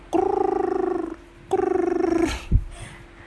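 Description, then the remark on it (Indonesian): Two rumbling, rapidly pulsing purr bursts from a cat being stroked on its head, each lasting about a second with a short pause between, fairly loud, followed by a brief low thump. “kucing itu ada HP di tenggorokan bergetar kucing maksudnya bos tapi memang ada sensasi-sensasi getaran sih”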